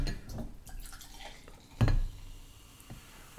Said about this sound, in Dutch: Maar je doet nu dus het geluid van cola. Mooi hè?